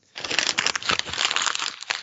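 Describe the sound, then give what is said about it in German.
An old résumé on paper being crumpled into a ball, a continuous crinkling and crackling that lasts nearly two seconds with irregular sharp bursts, no voices. “nee, das war tatsächlich ein alter, uralter Lebenslauf von mir.”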